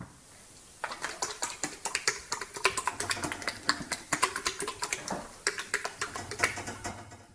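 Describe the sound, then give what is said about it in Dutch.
A horse in a stall, hanging out of the box, flaps its very large upper and lower lips, making a quick, irregular run of sharp clicking and smacking sounds, fairly loud and steady for several seconds with no one speaking. “En die doet iets heel gek met zijn eh, blijkbaar ook heel grote boven- en onderlippen.”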